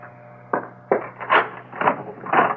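A front door is unlatched and opened for a visitor: two sharp clicks of the lock, followed by several softer wooden shuffles and creaks, over a steady low hum.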